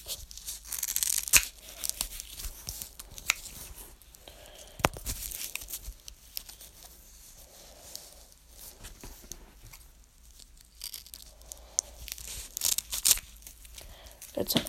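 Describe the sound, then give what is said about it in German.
Scissors cut a velcro strip to length, making a series of scratchy, tearing snips and crunches in irregular bursts, with faint murmuring in the background. “Dann nehme ich mir nochmal die Schere und schneide das dann da ab.”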